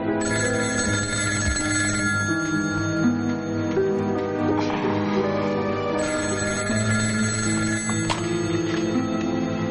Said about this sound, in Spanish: Al día siguiente en casa, Charlie está vestido tumbado sobre la cama durmiendo algo inquieto. De pronto el sonido del teléfono le despierta.